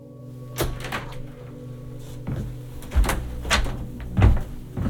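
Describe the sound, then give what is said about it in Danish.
The front door of a house on a residential street in a small town being opened by the occupants: a series of sharp latch clicks and wooden thumps spread over a few seconds, with a steady low hum in the background and no voices. “Det ser afpresserens forældre, der åbner døren.”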